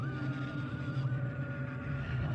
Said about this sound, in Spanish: Y la luz vuelve a parpadear. Se ha encendido. Y empezamos a escuchar ahora mismo la radio estática.